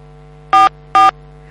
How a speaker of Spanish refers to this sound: A ver, tenemos alguna interferencia en la comunicación.